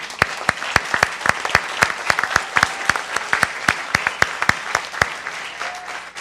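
An audience applauds with steady, dense clapping, sharp individual claps standing out above a fairly loud continuous patter for about six seconds, with no voices over it.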